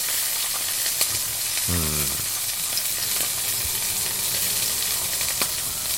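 Pork belly sizzles in a frying pan on a portable gas stove, a steady dense hiss dotted with sharp crackles and pops, with one brief squeaky tone partway through and no talking.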